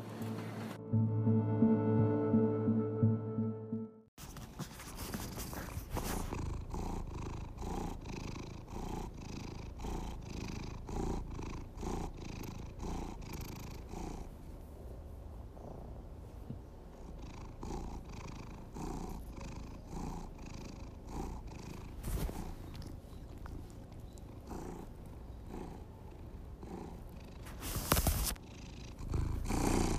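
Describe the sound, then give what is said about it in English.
A cat purrs loudly, a continuous rumbling vibration that carries on steadily for the whole stretch after a brief harmonic tone at the start, with no talking. The cat is in the Los Angeles County area. “You're listening to Marky, the loudest purrer”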